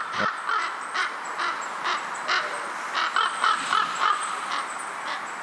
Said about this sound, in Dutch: Een ijzig windje en dan zitten hier zo raven boven te cirkelen. En dan, ja, hier komt niemand buiten dan de militairen die er eh, in de verte aan het schieten zijn. Ja, en dan, dan hoort je zo dat, die raw, raw, hoort hier door de bossen galmen.